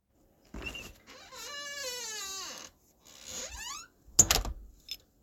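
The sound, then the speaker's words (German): A door is carefully opened with a click, then two long, drawn-out squeaky hinge creaks, ending in a short knock of the latch. Fairly quiet, with no one talking. “Vorsichtig öffnete ich die Tür.”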